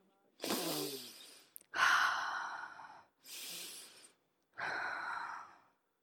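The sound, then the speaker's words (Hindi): Four heavy, labored breaths rasp, each drawn out and separated by short silent pauses, like a dying man struggling for his last breaths. No one speaks. “कानों में बाबूजी की सांसों की आखिरी आवाज़ गूंज पड़ी”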